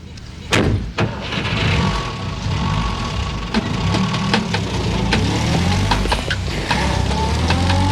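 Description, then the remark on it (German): A taxi's engine idles steadily with a low rumbling hum, broken by a sharp thud near the start and a few faint clicks and knocks; no one speaks. The taxi is carrying the Three Investigators (Die drei ???) to Beethoven Street. “Mit einem Taxi ließen sich die drei Fragezeichen zur Beethoven Street chauffieren.”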